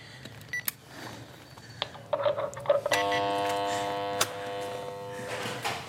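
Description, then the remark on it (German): A few short electronic beeps and clicks as a number is pressed to ring, then the door intercom buzzer of a bright sunny-yellow house sounds a harsh, steady, harmonically rich buzz for roughly two seconds before cutting off. No one speaks. “Zum Klingeln Nummer drücken, okay.”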